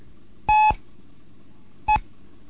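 Two electronic Morse code beeps, a longer dash for T, meant to be three times as long as the E, followed after a pause by a short dot for E, each a steady, clear tone against a quiet background.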